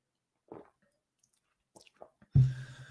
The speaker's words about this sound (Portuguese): Então. Já devo voltar enquanto eu tomo água.